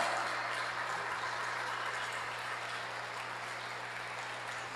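An audience applauds God at a church service, a dense, steady wash of many hands clapping that continues through the whole stretch, easing only slightly toward the end, with a low constant hum underneath and no voices.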